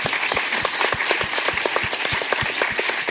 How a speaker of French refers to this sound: On peut applaudir